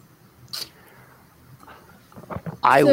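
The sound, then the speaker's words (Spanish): Sparse, bright water-droplet plinks sound in a quiet sonification of telescope data on a planet's atmosphere, the drops marking wavelengths where the planet absorbs light, meaning water is present; one short drip early on and a louder cluster of ringing, pitched drops near the end. “Y es ahí donde se escuchan las gotas de agua.”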